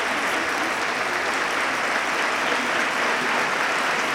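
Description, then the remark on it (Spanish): Sustained applause from a large crowd for the municipal band of Jaén at the Holy Week pregón, a dense, steady wash of clapping that holds at an even, fairly loud level for the whole stretch with no voices standing out. “De verdad, el aplauso más grande para la blanda de música que hoy nos acompaña.”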